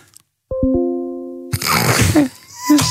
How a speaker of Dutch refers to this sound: ja, tenslotte ook nog maar even eventjes de e-mail-notificatie. Eh, die klonk zo. Oh ja, die, ja, ja, ja. ja, Maar ook een e-mailtje ontvangen wordt in eh, Windows 11 een stuk meer zin